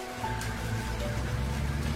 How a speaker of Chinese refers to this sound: 这个冷血的世界还在一刻不停的运转着，淅淅沥沥的雨声吞没了所有的一切。